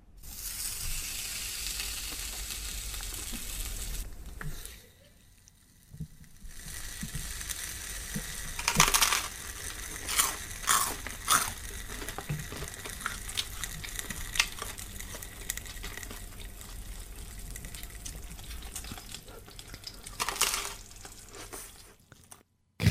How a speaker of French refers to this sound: crépitement, métal, chaleur, bruit de bouche. C'est bien d'une raclette dont il est question ici.